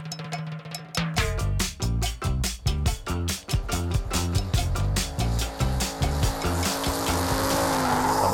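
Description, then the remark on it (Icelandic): Engines rev hard in rapid bursts while tires squeal and skid, a loud, continuous roar of cars with pulsing throttle and a sustained high screech toward the end, at the Bíladagar car festival at the car club's motorsport area in Akureyri, Iceland. “Höðustadur Norðurlands fyllist af fólki, bílum, kraftpústum, beinum, innspýtingum, spoilerum og reikspóli.”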